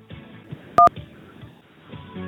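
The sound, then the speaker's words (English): A single short, loud telephone keypad DTMF beep cuts in sharply near the middle, set against a soft, steady background of low murmuring sound. “If you want to hear the latest news about the Evercade and cartridge releases, press 1”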